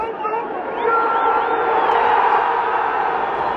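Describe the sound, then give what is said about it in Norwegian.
A huge football stadium crowd at Wembley roars and cheers during a VAR review, the noise swelling after a moment into a sustained, loud wall of sound with scattered whoops and shouts rising above it. “Vi kan jo høre hvordan det hørtes ut da vi skjønte at her er det en VAR-drama på gang.”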